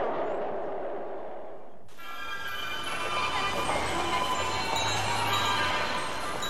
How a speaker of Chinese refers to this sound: 乘客您好，欢迎您乘坐上海地铁。